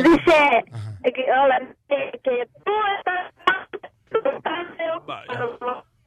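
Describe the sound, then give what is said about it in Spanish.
A caller's voice comes through a thin, band-limited mobile phone line in choppy bursts, the speech repeatedly dropping out and breaking up as the call cuts in and out. “Mami, se está cortando tu llamada, bebecita hermosa.”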